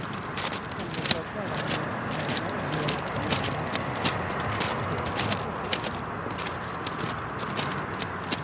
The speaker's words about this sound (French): Euh, on n'entendait pas l'autoroute comme on est en train de l'entendre aujourd'hui là. À l'époque, on entendait des voitures, mais pas comme ça.